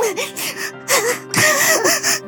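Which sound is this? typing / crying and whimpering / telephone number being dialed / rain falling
crying and whimpering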